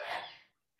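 A single sharp sneeze bursts out loudly, its breathy hiss trailing off over half a second before a brief pause and the start of another faint breathy sound.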